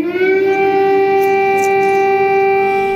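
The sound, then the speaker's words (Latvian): A loud, steady air raid warning siren in Ukraine, sounding in the morning during a massive Russian missile attack, holds a sustained wailing tone with rich harmonics, alone and continuous throughout, with no voices present. “Šorīt visā Ukrainā atkal bija dzirdamas gaisa trauksmes sirēnas.”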